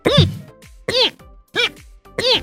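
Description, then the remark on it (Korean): Four short, high-pitched hiccups from a streamer, cute despite his manly voice, come at a steady rhythm about half a second apart. Each is a brief, voiced squeak with a rising-and-falling pitch, and there is no talking between them. “참고로 상남자스러운 목소리와 다르게 딸꾹질 소리가 귀여운 편으로”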